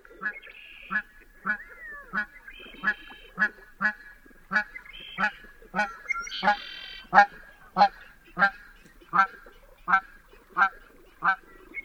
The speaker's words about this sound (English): A lone Canada goose flies overhead, followed by a pair headed in the opposite direction.